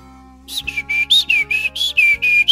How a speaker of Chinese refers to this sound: 啾啾啾啾啾啾。小鸟跟着妈妈在散步。